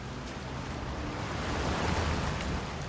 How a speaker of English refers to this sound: The heavens have opened and the rain is pouring down, but that's not stopping us from looking out the Thames.